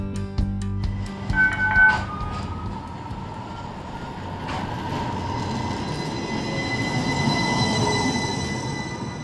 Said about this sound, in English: Tucsonans who live or frequent the downtown area are familiar with the sound of the Sun Link streetcar, which runs about four miles from west of I 10 to the University of Arizona campus.